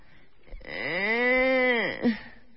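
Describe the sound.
A person's voice makes a single drawn-out, low moo like a cow, rising slightly and then sliding down over about a second, followed by a brief short sound.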